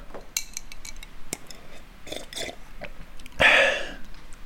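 Ice cubes clink against a glass of gin and tonic several times in quick, irregular taps, ending in a louder rattling swirl near the end. No one speaks.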